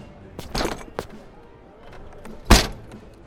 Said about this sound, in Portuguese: A diligência parou de frente para o castelo. O cocheiro desceu, precisando tomar um ar antes de prosseguir. Se abanou com a mão, caminhou a passos lentos e abriu a porta da carruagem.